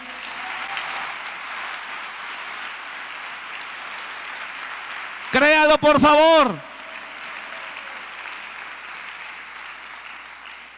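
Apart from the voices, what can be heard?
audience applause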